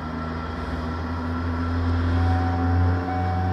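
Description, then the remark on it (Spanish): A car engine drones steadily with a low, constant hum, as if heard from inside a moving car on a road trip from Bogotá, about to stop again for fuel. There's no talking, and no clear stop at the end. “Uy, chiquilla, nos tocó tanquear otra vez. Oye, pero este carro sí que consume gasolina.”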